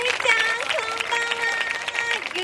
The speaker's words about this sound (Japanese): 東京プラネタリーカフェ in 新宿今夜もスターパーティーの扉を開けてみましょう大きな拍手でお迎えください